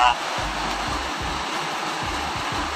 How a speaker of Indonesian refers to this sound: Oke, okay, anyway nih mungkin buat sobat Yunoya yang merasa uh, kedengaran agak bising ya. Kebetulan di sini posisinya tuh lagi hujan, jadi sorry banget.